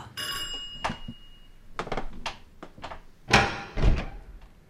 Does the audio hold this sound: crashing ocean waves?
no